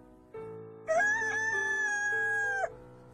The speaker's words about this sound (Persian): سختترین لحظه برام وقتی بود که خروز شروع کرد بخوندن صدایی که برای بقیه نماینده صبح بود داشت آخر قصه ما رو اعلام می کرد